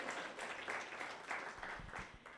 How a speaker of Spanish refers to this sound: Amén. Un aplauso para Dios. Muy, muy bien. Muy bien.